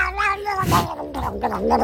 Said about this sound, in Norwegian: Det er egentlig en katt som blir kosa med, ja.